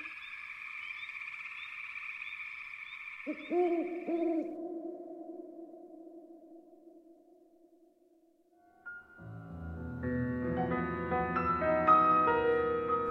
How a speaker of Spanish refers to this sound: El búho